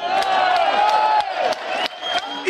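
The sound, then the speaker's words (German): A crowd on the far right side shouting loudly all at once, many overlapping raised voices forming a steady roar, broken by a few sharp bursts that sound like claps or whoops, for about two and a half seconds. “Viel Gebrüll von rechts außen.”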